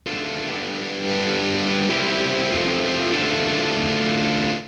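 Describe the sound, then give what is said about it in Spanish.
An electric guitar played through a Vintage Drive overdrive pedal effect, gritty and vintage-style, ringing out a few sustained chords that shift once or twice, loud and continuous for several seconds with no talking. “Y esa tiene dos pedales diferentes, que son Roboflanger y Vintage Drive, se llama.”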